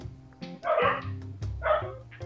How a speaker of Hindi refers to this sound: हाँ अभी वापस कुत्ते भौंक रहे हैं